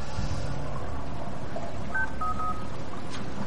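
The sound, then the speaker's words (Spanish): A phone number being dialed in a basement on a telephone taken from a pair of trousers: a few short, clear keypad tones beep in quick succession over a steady, noisy background hum, moderately loud. “Observa un teléfono en un pantalón. Lo coge. Marca un número.”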